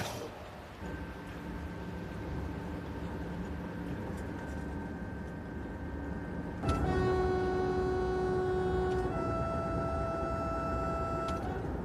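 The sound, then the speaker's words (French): A TGV high-speed train on the Rennes to Quimper line, entering Quimper station, rumbles steadily with a thin sustained whine. About two-thirds through, a louder, richer layered tone cuts in and holds to the end. No one speaks. “le TGV relie Rennes à Quimper en 2 heures et 15 minutes.”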